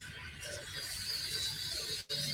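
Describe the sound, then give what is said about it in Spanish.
Cicadas drone in a steady, high-pitched shimmering buzz that fills the whole stretch, fairly soft, with a brief dip near the end before the chorus resumes. “Bueno, mm, me estaba escuchando acá las chicharras, ¿no? Que, nos hablan un poquito.”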